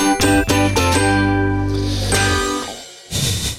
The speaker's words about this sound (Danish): Ja, oh, der var lige i hvert fald en hård ding.